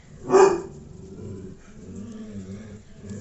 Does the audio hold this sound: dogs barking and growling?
yes